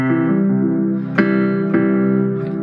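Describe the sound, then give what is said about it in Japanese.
Synth piano notes struck a few times, each with a crisp attack, layered over a soft, sustained pad that keeps sounding for a while after the keys are released, like an echo, two instrument sounds combined into one. No voices. “あの実はピアノの音色なんですけど、はい、ピアノだけじゃなくて鍵盤から手を離してもしばらくあのパッドっていう音が出てます。”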